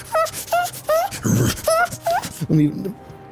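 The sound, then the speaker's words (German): A voice mimics an animal's whimper heard behind a Backbär: a series of short, high, whiny cries rising and falling in pitch, fairly loud, followed by a lower vocal sound at the end. “Hinter, hinter, dem, hinter dem Backbär hörte wieder so, jetzt so ein bisschen, auch so ein bisschen winseln, so”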